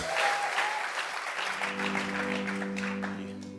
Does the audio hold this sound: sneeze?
no